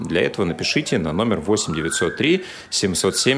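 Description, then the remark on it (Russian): An emergency vehicle siren wails faintly outside, a thin rising tone drifting beneath a man's continuous speech for a couple of seconds. “Там Это скорая, возможно, скорая.”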